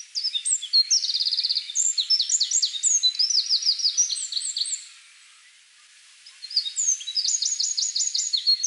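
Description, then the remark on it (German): A Eurasian wren sings a loud, rapid torrent of high trills and chattering notes, pauses briefly, then bursts into another fast trilling phrase, clear with no voices. “Wenn es laut ist, laut und pünktlich ja. zusammen, dann ist es der Zaunkönig.”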